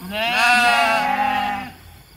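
A single long sheep bleat, loud, with a wavering, quavering tone that holds for over a second before trailing off, heard on its own with no talking.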